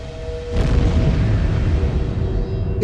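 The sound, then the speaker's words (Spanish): A deep nuclear explosion boom erupts after a brief pause and rolls into a loud, sustained low rumble that fills the rest of the moment, heavy and without any voices. “La prueba nuclear más reciente de Corea del Norte en septiembre de 2017 produjo la mayor explosión hasta el momento.”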